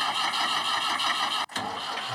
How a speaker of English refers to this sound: Moo turned the key. The tractor grumbled.